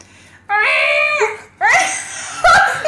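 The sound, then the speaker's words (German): A voice imitates a newborn's wailing cry while acting out the birth of Jesus in a nativity scene, in three strained, high-pitched bursts, the first long and sustained, the next two shorter, loud. “warte, warte, ich mach mehr Baby.”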